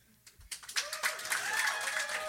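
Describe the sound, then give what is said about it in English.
Scattered claps start up and quickly swell into sustained audience applause, dense and steady, with some whooping or cheering tones riding on top. “So the thing I guess I want to ask first I want to hear from a round of applause if people really think we could do this.”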